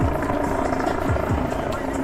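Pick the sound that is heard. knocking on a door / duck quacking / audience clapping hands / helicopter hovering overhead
helicopter hovering overhead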